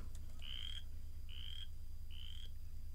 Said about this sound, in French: je viens de tomber sur une vidéo YouTube de, ce que ça fait comme bruit, une rainette faux grillon